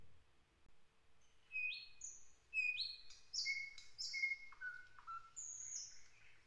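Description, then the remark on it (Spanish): Birdsong in spring: a series of bright, whistled notes and quick chirps from several birds, rising and falling in overlapping phrases, clear with no voices over them. “El canto de los pájaros.”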